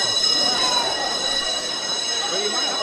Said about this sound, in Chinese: 我们现在听到了这样长长一声跟上课铃声一样的声音， 对， 这个就是茶室应该是开始交易了，是吧？ 对，大家可以在准点开始他们的 交易。